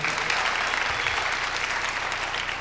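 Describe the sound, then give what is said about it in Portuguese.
A church audience applauds the Lord for their local church, a dense steady patter of many hands clapping at an even loudness throughout, with no voices standing out above it. “Você pode aplaudir o Senhor pela sua igreja local, amém?”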